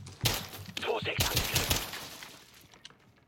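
video game gunfire

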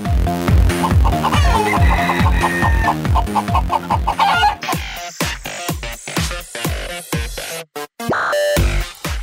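rooster crowing and clucking

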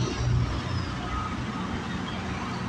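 truck driving past outside

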